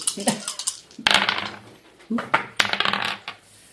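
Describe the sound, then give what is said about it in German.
Four dice clatter and tumble across a hard table in three quick bursts, sharp rattling hits that skitter and settle, fairly loud, with no voices over them. “Warum würfelst du vier Würfel?”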